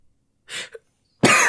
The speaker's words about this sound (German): Entschuldigung. Ich habe wirklich husten müssen.